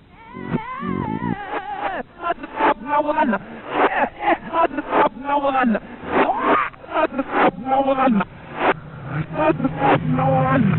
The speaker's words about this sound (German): Und zwar eine Rückwärtsbotschaft. Das war ja mal eine Zeit lang ganz modern und es gibt so einige Titel, äh, da sagen die Fans, oh, wenn man das Ding rückwärts abspielt, spielt, dann ähm, ist da eine Botschaft drin und ähm, gilt auch hier, hört mal.